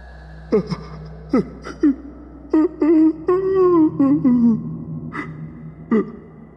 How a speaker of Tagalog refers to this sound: Nakarinig ako ng kakaibang tunog mula sa stockroom. Nakarinig ako ng mahinang paghagulgol. Hagulgol ng isang lalaki.